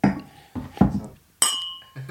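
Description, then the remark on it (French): Wine glasses clink together in a toast, one bright ringing chime that lingers and fades after a few low murmuring voices. “Yeah, à la vôtre.”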